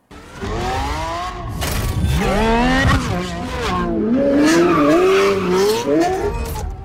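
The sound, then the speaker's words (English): A Lamborghini Revuelto plug-in hybrid supercar's V12 engine, also paired with three electric motors, revs hard at the New York Auto Show. Its pitch surges and dips through several strong throttle blips with a raw, howling tone, heard alone without any talking. “This new model is a plug in electric car with three motors and a V12 engine.”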